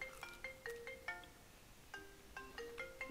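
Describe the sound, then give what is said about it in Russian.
A melodic phone ringtone plays two short phrases of quick, bright electronic notes with a brief pause between them. It is fairly quiet and sounds on its own, with no talking. “Вот зачем вам мне звонит?”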